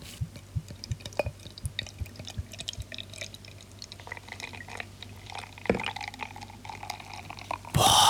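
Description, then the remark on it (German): Oberdorfer helles Bavarian beer from the fridge pours into a frozen glass Maß mug with a gurgling splash, followed by a steady crackle of fizzing bubbles and a few soft clinks; no one speaks. “wie das bitzelt, ha? Wie das brutzelt.”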